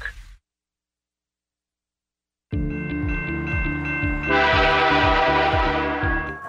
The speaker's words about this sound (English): Texting talking on your phone or listening to music near train crossings or on platforms are big distractions. You need to see and hear the train coming.